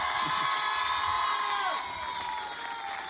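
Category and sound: crowd, studio audience cheering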